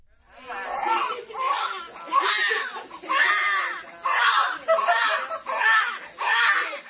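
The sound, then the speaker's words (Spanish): A baby cries loudly in a run of about seven strained, wailing bursts with brief catches of breath between them. There is no talking. “para hablarles de un estudio que quería averiguar, fíjense qué curioso, si las madres de todo el mundo reaccionaban igual ante el llanto de su hijo.”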